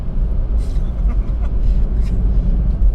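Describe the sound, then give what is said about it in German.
A steady, deep rumble of a car cabin while driving, loud and continuous low road and engine noise filling the space, with faint higher sounds flickering occasionally above it. “Da wir ja nach wie vor in meinem Auto sind”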